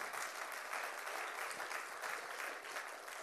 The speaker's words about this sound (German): das ist Applaus wert, würde ich sagen.